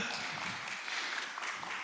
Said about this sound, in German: Stell dich einfach mal hin. Wir haben unseren neuen Jona. Applaus.